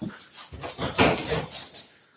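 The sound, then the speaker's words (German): A large dog, the speaker's pet Rottweiler, pants in quick breathy bursts, with soft whimpering mixed into the rhythm. It's fairly quiet overall, and no one speaks. “Äh, ein Rottweiler.”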